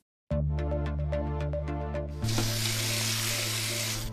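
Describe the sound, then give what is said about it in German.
A quick run of rhythmic scraping and clinking as dog food is stirred, then a steady rushing hiss of water being poured over it. No one speaks. “So, der Hund kriegt jetzt erstmal ein bisschen Futter mit Wasser und das ist so ziemlich das erste Wasser, was wir heute verwenden.”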